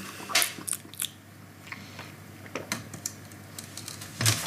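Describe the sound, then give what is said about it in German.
Crunchy chewing and biting of food eaten with chopsticks and soy sauce, a series of sharp irregular clicks and crunches spread across a few seconds, with a louder bite near the end, no talking. “Ja, noch ein bisschen Sojasauce, ja, das ist geil mit Stäbchen.”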